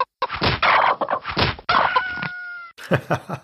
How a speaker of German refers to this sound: Ey, die Hühner.